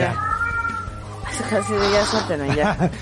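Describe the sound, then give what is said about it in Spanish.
A cat on camera in a broadcast studio meows, a few drawn-out, wavering cries with a whiny, caterwauling edge, while people talk faintly in the background. “Ya está en cámara el Ya está en cámara el gato, sí.”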